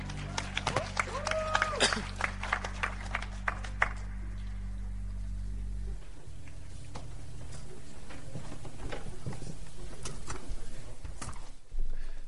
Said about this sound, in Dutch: De gastspreker komt helemaal uit Israël. Een applaus geven voor de hoge priester. Een slap applaus. Kom even, applaus voor de hoge priester.